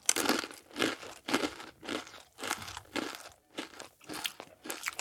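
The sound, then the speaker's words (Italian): Loud crunching of crisp, sugared, oven-baked corn flakes being chewed with a bowl of milk, about ten sharp bites in a steady rhythm with brief pauses between them. No talking. “Will estrae dal forno la sua creazione, prende una scodella di latte e assaggia il risultato”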